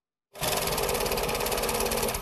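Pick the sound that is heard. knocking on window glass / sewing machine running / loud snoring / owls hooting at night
sewing machine running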